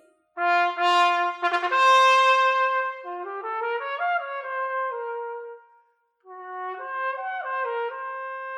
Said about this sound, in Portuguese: Chega de mistério, estamos falando do trompete.